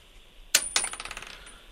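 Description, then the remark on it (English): A flipped coin, tossed to pick between the Buffalo Bills and the Steelers, drops onto a hard surface with a sharp metallic clink, then bounces and rattles in a quick series of fading rings before settling, coming up heads. No voices are heard. “All right, let's see what the coin says.”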